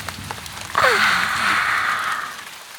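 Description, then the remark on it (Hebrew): A steady wash of rain starts abruptly and falls for about two seconds, a soft, even hiss that holds at a moderate level before easing slightly at the end. “ומה חשו? טיפות שהפכו לגשם. ומה עשו בגשם? מקלחת מרעננת.”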